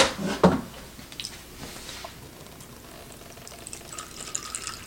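Cold water runs from a tap into an instant noodle cup, filling it up to the fill line inside, starting with a couple of sharp clattering splashes and settling into a steady, soft hiss of filling. No talking.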